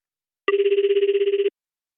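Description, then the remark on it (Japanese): A telephone rings once in a short, fast-trilling burst lasting about a second, clear, with silence before and after and no voices; it is an outgoing surprise call placed during a tour's dinner show. “えっとね今みんなが座っているテーブルにいくつか空席があると思うんだけどそこに座るはずだった皆さんにこれからサプライズで電話をかけたいと思います”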